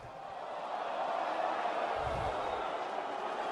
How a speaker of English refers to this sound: You hear that crowd reaction to that? They love you, man.